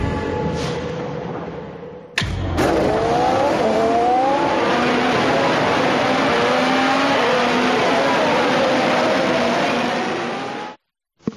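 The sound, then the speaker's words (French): Loud, high-pitched Formula 1 engines scream and rev, pitch climbing in repeated sweeps as cars accelerate; a brief break early on, then a sustained roar that cuts off abruptly near the end. “Je dirais déjà que le sujet, c'est la Formule 1.”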